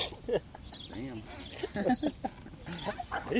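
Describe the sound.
A small pug dog growls and snarls face to face in short, throaty bursts, with rough snorting sounds between them, heard from about three metres away while people talk over the noise.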